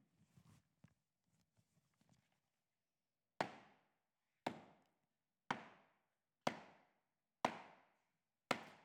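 Hammer blows driving nails, depicting the nails driven into Christ's hands and feet on the cross at Calvary: six loud, sharp strikes about a second apart, each ringing out briefly, after a few seconds of faint low rumbling and scattered light taps.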